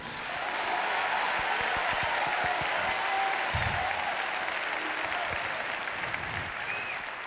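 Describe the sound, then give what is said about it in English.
A church audience claps steadily in sustained applause as praise, a dense wash of many hands from start to finish at moderate loudness, with no clear talk over it. “Uh, somebody clap your hands and give him a praise.”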